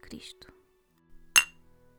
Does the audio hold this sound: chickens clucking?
no